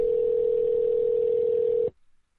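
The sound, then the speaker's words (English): A telephone ringback tone heard down the line, one steady buzzing tone held for about two seconds before cutting off abruptly, fairly loud and alone with no voices. “It's like a double ring.”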